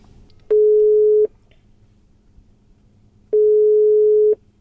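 A telephone ringing tone sounds twice as a call is placed, each steady electronic burst lasting under a second, separated by a pause of about two seconds over a faint low background hum.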